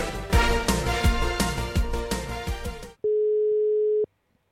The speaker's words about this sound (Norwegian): Der er han. Eller, der ringer det. Jeg er spent. Tror om han tør å ta telefonen.